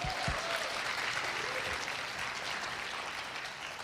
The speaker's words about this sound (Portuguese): Uma salva de palmas para vocês, por favor.